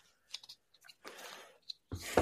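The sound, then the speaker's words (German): Several quick, irregular key clicks tapped on a computer keyboard, with a longer burst of clattering in the middle and a sharper knock at the end. “Er hat einfach nur auf die Tastatur gedrückt und dann war sie weg”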